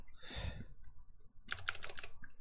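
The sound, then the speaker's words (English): A clicky mechanical keyboard with Kailh green switches typed in a quick burst of sharp, crisp clacks, fairly loud, after a brief softer rustle at the start. No one speaks. “Um, they are some of the clickiest switches that you can get.”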